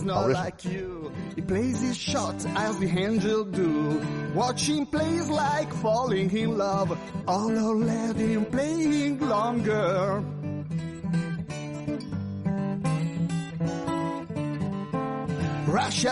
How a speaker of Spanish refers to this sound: bueno, encontré una canción folk mm, dedicada a Roger Federer,